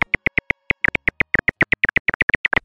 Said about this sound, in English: This is a silver haired bat.